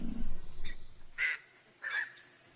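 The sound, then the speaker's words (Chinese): A male crocodile roars in the water with a deep, rumbling bellow, a courtship signal to a nearby female, followed by two short, harsher bursts of sound a moment apart. No one speaks. “他借此向附近一条雌鳄发出求爱信号，其他雄鳄也听到了。”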